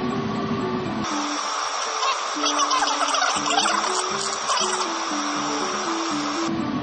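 An air conditioner runs on a hot day with a steady, fairly loud whooshing hum that fills the whole stretch, with a faint low droning undertone and no voices.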